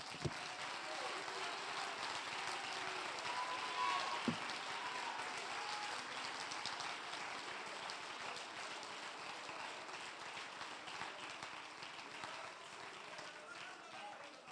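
A church audience on its feet claps and shouts to the Lord in a loud, sustained burst. Dense hand-claps mix with cheering voices and hold steady throughout without letting up.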